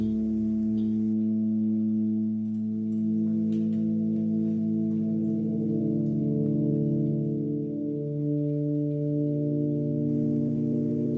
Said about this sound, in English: It's made of glass tubes of different lengths, like organ pipes, which are fed with a hydrogen or propane flame at the bottom. The airflow is regulated to divide the flames up, each vibrating in its tube to create a different sound.